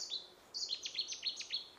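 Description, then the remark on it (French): A bird sings a quick series of high, bright chirps and trills, repeated rapidly over a couple of seconds, clear against a quiet outdoor background with no talking; birds are all around. “Oh, oh, tu entends ça Qu'est-ce que c'est comme oiseau Tu reconnais le chant, toi Je ne reconnais pas tous les chants des oiseaux, j'aimerais bien, mais.”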